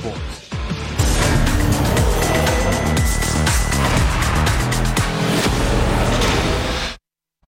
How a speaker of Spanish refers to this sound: Rugen los motores de la Fórmula 1 en Canadá.